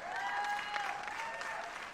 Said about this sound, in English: But the only reason, yeah, you can give her a hand clap.